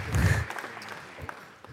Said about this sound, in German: yeah. wasn't a very big clap, was it?